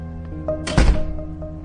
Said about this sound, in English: That'll be all. You can shut the door behind you.